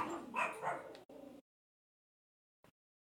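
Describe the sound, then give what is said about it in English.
Dogs barking in a quick run of loud, yappy barks lasting about a second, then one shorter bark, followed by silence and a faint brief yip. “hi, dogs.”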